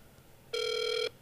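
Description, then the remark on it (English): A single steady electronic telephone tone, bright and buzzy, from a phone call ringing before it goes to voicemail, sounds for about half a second and then cuts off, clear with no one talking. “pick up, just call him regular and leave a voicemail.”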